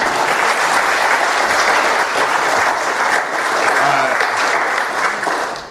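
A crowd applauds steadily for several seconds, a dense, sustained wash of clapping that stays loud throughout before easing slightly at the very end.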